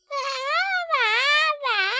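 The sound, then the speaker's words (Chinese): A voice imitates a baby bear crying on its mother's shoulder after waking: three loud, wailing bursts with rich harmonics and wavering pitch, each swelling and dipping, with no other talk around them. “有时候，就算是熊妈妈也会一大早遇上麻烦，特别是当熊宝宝醒来以后，趴在妈妈的肩头上大哭的时候，就会更加的添乱了。”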